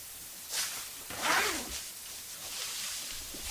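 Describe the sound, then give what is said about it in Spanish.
A jacket zipper is pulled down in a couple of quick rasping strokes, followed by soft fabric rustling as the garment comes off. Fairly loud, with no talking. “no uses esa chamarra, se oye un montón.”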